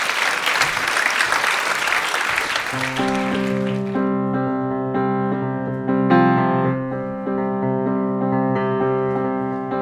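Audience applause, a dense burst of clapping for about three seconds, fades as steady, sustained musical notes start and carry on to the end.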